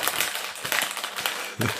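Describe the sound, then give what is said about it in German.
Continuous crinkly rustling, like a packet or paper being handled, with irregular louder crackles every half second or so, over a soft hiss. No one speaks. “Raschel. Raschel. Mist, ich hab gedacht, das ist leiser.”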